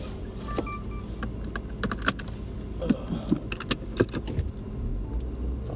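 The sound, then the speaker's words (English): Inside a car: a steady low rumble runs throughout while sharp clicks and a jingle of keys come in irregular bursts near the middle. Nobody speaks. “Lovely, lovely car”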